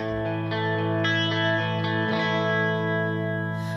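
Heavy rock band's cover of a well-known Russian song: intro with loud, thick distorted electric guitar chords ringing out steadily, layered with effects and a sustained droning tone, no vocals yet.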